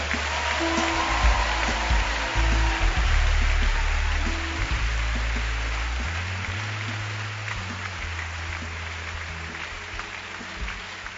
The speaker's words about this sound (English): So as you are clapping, then also clap for yourself.